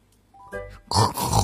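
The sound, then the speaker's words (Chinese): A pig grunts: a brief nasal tonal note, then two loud, rough, breathy grunts in quick succession, with no talking. “小猪从对面走过来。”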